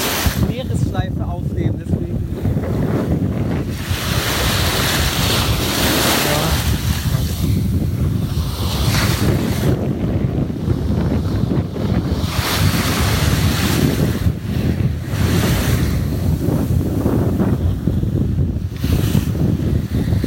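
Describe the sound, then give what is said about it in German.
Ocean waves wash and break continuously on a summer beach, a loud, broad roar rising and falling in surges, with gusty wind buffeting the microphone throughout. “Sommerstrand approved, ja?”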